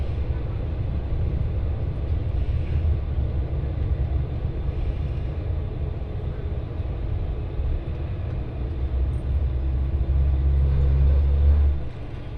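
local train running

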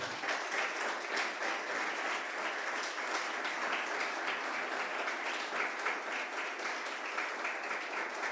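audience applauding

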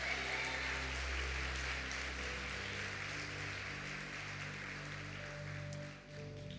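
audience applauding

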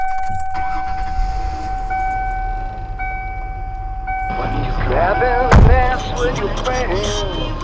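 getting into car

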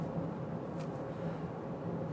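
car interior noise

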